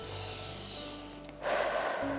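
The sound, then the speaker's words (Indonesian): A single audible breath drawn in, starting soft and swelling into a louder, airy rush of breath, with no talking. “wah aku marah banget nih sadari itu ambil nafas”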